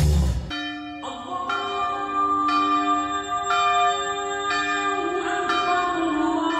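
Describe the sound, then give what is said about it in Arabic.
Church bells peal in a steady sequence of strikes roughly every second, their rich overlapping tones ringing on and sustaining together, loud and resonant with no voices. “عندما تعانق أجراس الكنائس تكبيرات المساجد تنطلق نفحات الإيمان من كل مكان”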